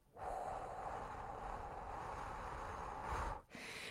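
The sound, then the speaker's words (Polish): A single person does an evening breathing exercise, inhaling for a count of three and exhaling for six: one long, steady, airy breath lasting about three seconds, a brief pause, then the start of another breath. No one speaks. “I wieczorami to robi się krótszy wdech, a dłuższy wydech.”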